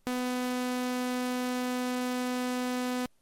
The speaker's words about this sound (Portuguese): Essa aqui é uma onda serra.